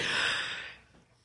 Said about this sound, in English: Is that a yawn? Huh? Is that a yawn?